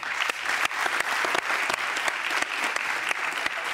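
An audience claps steadily for the creator of Guardiões do Litoral, a volunteer movement that cleans beaches. The applause is a dense, sustained patter of many hands with scattered sharper claps, at an even loudness throughout and with no voices.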